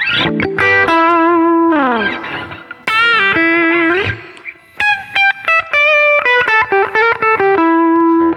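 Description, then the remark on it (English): An acoustic-electric guitar set to the Fender Electric Dirty voicing, with only reverb added and played through a PA system, plays loud sustained notes with sliding bends, then a run of choppy, punchy phrases, heard alone with a little reverb. “so this is the Fender Electric Dirty”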